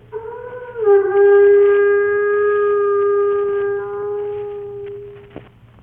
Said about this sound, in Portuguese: Fez soar a buzina instrumento de chifre muito usado para chamar os escravos nas fazendas. Como o negro demorasse muito, tocou outra vez.